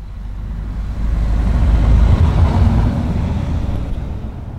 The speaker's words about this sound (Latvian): Uz ielas man garām pabrauc divi bruņu transporta līdzekļi.